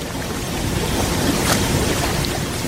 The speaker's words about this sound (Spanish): y al mismo tiempo en esos vacíos que dejan las aves acuáticas, las aves eh, que, iban a Doñana, se está colando por debajo el otro sonido que es la sentencia de muerte de ese espacio, que es el ruido de los motores, de las bombas,